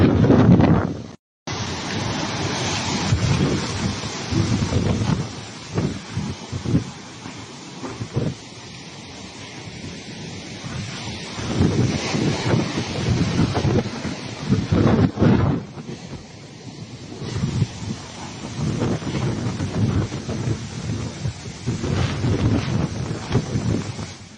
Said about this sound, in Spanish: Esto estás escuchando el audio de cómo está el ruido del viento, cómo está impactando en las palmeras y en los hoteles allí en la zona turística de Ixtapa.